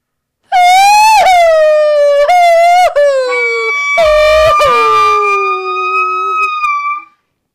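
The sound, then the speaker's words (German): A loud, siren-like wailing howl, made by a pot in a spoken story, rises and wavers in several drawn-out pitched cries, sliding lower and fading toward the end, with no talking over it. “es hat wie eine Sirene tönt.”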